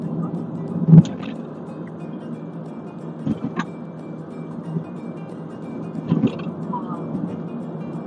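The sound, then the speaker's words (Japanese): Steady low rumble of a car interior while driving, with continuous engine and road noise and a few brief bumps or thuds scattered through, no talking. “それで今、えーと、車の中で悪戦中、悪水中です。”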